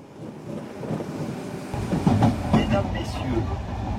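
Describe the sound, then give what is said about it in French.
A night train rolling along the rails with a steady low rumble that grows heavier after a second or two, joined by faint mechanical whines and rattles over the continuous roar. “Dans un contexte d'urgence climatique, comment est-ce que le train de nuit est doucement en train de se réveiller”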